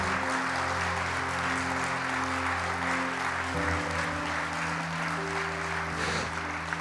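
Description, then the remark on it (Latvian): A crowd claps steadily and loudly for about seven seconds for their pastors, a dense, even wash of applause, with sustained keyboard-like tones holding chords underneath. “Kā, dosim kārtīgs aplausus mūsu mācītājiem.”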